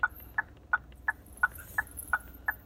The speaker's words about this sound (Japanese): うんちょっとウインカーの音を。